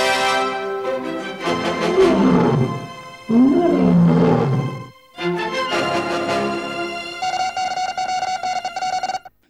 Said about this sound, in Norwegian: Ja, de har jo både løven som brøler, og de har eh, flere melodier som altså, De har en slags melodi som høres liksom kjent ut.